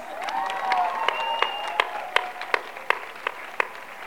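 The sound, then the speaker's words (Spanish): An audience applauds, starting as a dense patter of clapping with a few whistles and cheers, then thinning out to scattered individual claps before fading. “Un aplauso a todas las madres hitlerianas.”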